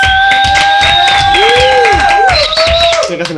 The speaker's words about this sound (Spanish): Antes que nada, quiero, quiero invocar un aplauso muy fuerte para nuestro señor director, productor, editor y güey del audio